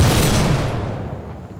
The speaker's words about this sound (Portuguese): O cômodo escuro se iluminou com o disparo.